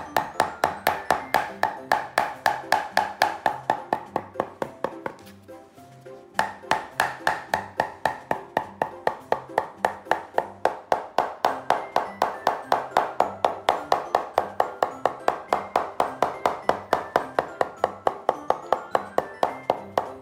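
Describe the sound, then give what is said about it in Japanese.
A hammer taps steadily on leather stretched over a shoe last, working over the whole surface, a fast, even run of sharp knocks that pauses briefly once before resuming at the same quick rhythm. “全体を叩いていきましょう。”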